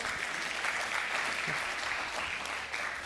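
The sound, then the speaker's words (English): An audience applauds steadily, a dense wash of many hands clapping at once, sustained and fairly even for a few seconds with no talking over it. “You know, it doesn't count if you have to beg for a clap.”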